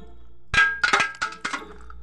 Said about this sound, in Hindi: तभी उसे किचन से बर्तनों के गिरने की आवाज़ आई